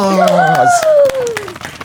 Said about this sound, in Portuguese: Treme! Aplausos!